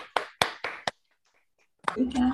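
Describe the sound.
Brief applause: five sharp, loud hand claps in a quick, uneven rhythm, then a short silence before a voice begins.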